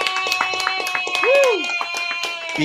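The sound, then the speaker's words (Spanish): A short burst of audience applause for a guest on a show, scattered sharp claps of steady loudness over sustained tonal sounds, with a brief rising-and-falling whistle-like sweep midway through. “Un aplauso nuevamente, por favor”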